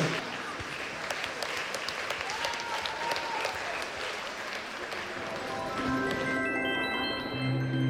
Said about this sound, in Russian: Пусть победит добро. Аплодисменты этим ребятам. Спасибо. Спасибо. Вы молодцы.